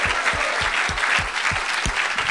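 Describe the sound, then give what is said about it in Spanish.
An audience bursts into sustained, dense applause for the Lord Jesus Christ, many hands clapping at once, with a steady low thump pulsing underneath about three times a second. “Démosle un buen aplauso al Señor Jesucristo.”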